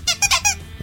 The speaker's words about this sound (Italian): perfetto, questo è il suono della macchina conta. Conta, ok, sì, immaginavo.